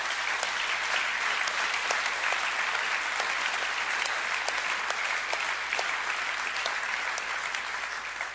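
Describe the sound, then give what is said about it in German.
A church audience applauds steadily for several seconds, dense overlapping hand claps forming a continuous wash of sound with no voices standing out, clapping to show the Lord has spoken to them. “dann möchte ich, dass du jetzt einfach schon mal anfängst zu klatschen, wenn du den Eindruck hast, dass der Herr zu dir geredet hat.”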